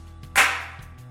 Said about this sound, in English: He stood between us, clapped his hands together just once.